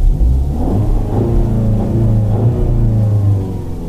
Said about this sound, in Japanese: まずは皆さんにこちらの車のエンジン音も聞いていただきたいんですがもう一台いきましょうどうぞアメリカンスポーツカー特集続いてはマスタングです